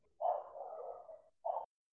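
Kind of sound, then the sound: animal, dogs barking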